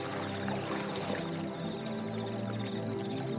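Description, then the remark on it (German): Water pours steadily into a large ceramic jug as Easter water is fetched from a shore, a continuous splashing stream with a hollow, resonant ring that holds at an even level throughout, with no voices. “Jede von ihnen trägt einen großen Keramikkrug. Der Tradition nach sind es die unverheirateten Frauen, die Osterwasser für die ganze Familie holen sollen.”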